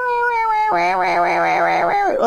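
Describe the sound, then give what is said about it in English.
Loud, a single voice imitates squawking birds: a sustained, nasal note breaks into a rapid, wavering screech that rises and falls for about a second before trailing off. “All of a sudden, these birds started just squawking, like”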